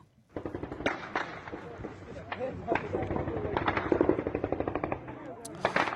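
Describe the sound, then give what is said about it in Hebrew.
An exchange of gunfire in clashes between Afghan Taliban and Iranian forces on the Afghanistan–Iran border in southwest Afghanistan: loud, rapid bursts of shots crackling almost continuously for about six seconds, some volleys overlapping in quick rhythmic strings, with voices audible underneath. “כן, אז אנחנו שומעים שם אה, חילופי אה, ירי ו...”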